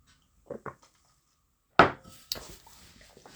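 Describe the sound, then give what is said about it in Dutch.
Someone sipping water: two soft, quick sounds, then a sharp clunk like a glass set down, followed by faint rustling and handling noises. No one speaks. “Ik moet weer een slokje water.”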